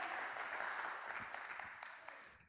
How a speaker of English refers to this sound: Oh, you ought to give him a hand clap of praise. That's who you are.